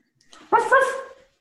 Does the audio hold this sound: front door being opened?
no